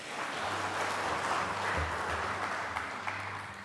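A steady wash of crowd applause, dense overlapping claps at moderate loudness lasting a few seconds, with a low hum running underneath and no voices.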